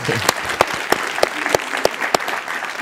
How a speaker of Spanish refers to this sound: Claro, un aplauso.